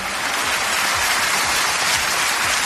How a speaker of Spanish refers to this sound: ese largo aplauso se prolongó y hasta ahí llegó el rey, que es por otro lado a donde puede llegar.